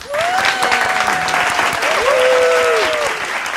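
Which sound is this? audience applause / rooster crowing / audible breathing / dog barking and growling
audience applause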